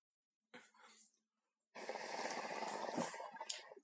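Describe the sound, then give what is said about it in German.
Someone sips water with a noisy bubbling slurp: a short gurgle, a brief pause, then a longer, steady rough burble lasting about two seconds, with no talking. “ich blubber mir gerade einen Schluck Wasser.”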